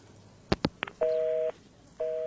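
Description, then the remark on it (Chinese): A few sharp clicks as a woman caller hangs up a phone call to a police officer, then a steady mid-pitched busy tone beeping on and off in even half-second pulses, with no voices. “一行也不知道这女人到底是发什么疯，竟然主动的挂断了电话。”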